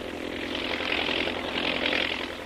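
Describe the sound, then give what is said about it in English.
An army propeller plane flying ahead of a mechanized column drones steadily overhead as it spots something and reports by radio to the column below, a broad, sustained roar that swells slightly and holds throughout, with no voices present. “An army plane in advance of the mechanized column sights something and reports by radio to the column below.”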